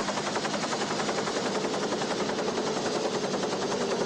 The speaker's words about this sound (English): I would think that the, uh, you know, the chopper would, would just blow these bees around. They wouldn't be able to congregate.